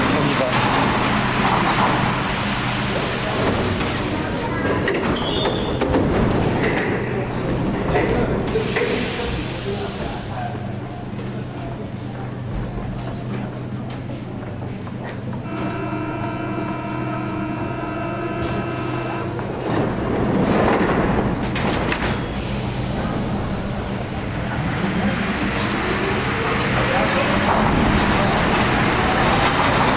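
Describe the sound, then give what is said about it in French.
A metro train rumbles into a station, its steady roar swelling before a rising electric motor whine holds for a few seconds, then fades amid platform noise and faint voices. “C'est possible, tiens, voilà un autre train qui arrive.”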